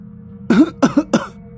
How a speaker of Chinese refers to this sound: 爷爷咳嗽了几声